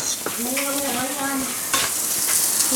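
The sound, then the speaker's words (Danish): Steaks sizzle on a gas grill with a steady, bright crackling hiss, broken by a few sharp clicks and a brief wavering squeal of tone early on; no one speaks. “Jeg lige husker at have den rigtige til at vende bøffer med.”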